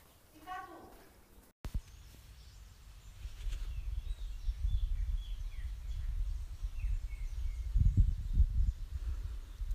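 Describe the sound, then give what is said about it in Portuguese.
Small birds chirp and twitter sporadically while a low, gusting wind rumbles steadily outdoors, growing a bit stronger toward the end. “o silêncio no meio dos pássaros e do vento.”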